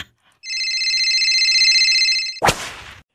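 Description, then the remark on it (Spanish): A telephone rings loudly, one sustained trilling ring lasting about two seconds, cut off abruptly by a sharp clattering knock like the handset being lifted. “Que agarres el teléfono. Que ya está sonando.”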